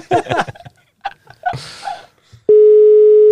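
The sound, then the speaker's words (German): Laughter and breathy vocal sounds give way to a loud, steady telephone ringing tone on an outgoing call to a woman, a single unbroken mid-pitched beep that starts abruptly and holds until the end. “Ich habe dich ja gestern schon gefragt, ob ich dich anrufen darf.”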